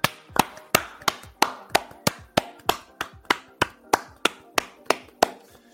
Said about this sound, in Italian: Beh dai, glielo vogliamo fare un applauso al pubblico certo. e facciamolo.